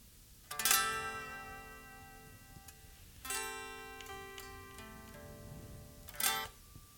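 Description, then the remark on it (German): An acoustic guitar plays a G-sharp major 7 sus 9 chord, strummed three times a few seconds apart, each strum ringing out and slowly fading. It is fairly quiet, with no voices. “Das, meine Damen und Herren, war ein Girs Major 7 Sus 9 Akkord”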